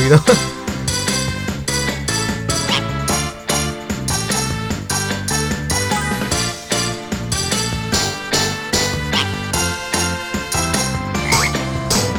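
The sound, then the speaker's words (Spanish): A cartoonish frog croak sound effect rings out in a video game as a frog lands on the character's head after a miss, over loud, busy, upbeat game music with a steady, punchy beat that continues throughout. “Cuando lo hacemos mal se le para una rana en la cabeza.”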